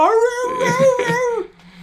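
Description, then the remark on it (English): A person imitates a beagle's howl, a single drawn-out, wavering vocal wail held for over a second, fairly loud, then trailing off into a brief quieter tail. “I'm like, "I'm just gonna howl for a while."”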